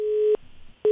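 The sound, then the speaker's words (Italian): A steady telephone busy tone sounds in loud, even pulses, a flat mid-pitched beep, then a short gap with faint low rumble, then the beep returns, signalling a dropped call. “È caduta la comunicazione,”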